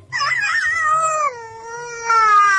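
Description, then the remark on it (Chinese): A voice imitates the sad howl of Fro, a bear cub in a story, as he lifts his little head: one long, wavering cry with a gliding, falling pitch that swells again near the end, loud and alone without any talk. “然后他就抬起小脑袋，发出了一声伤心的嚎叫。”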